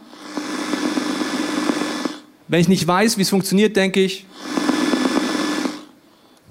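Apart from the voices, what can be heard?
radio static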